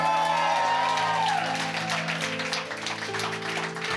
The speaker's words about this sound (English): Come on and shout. Come on and clap.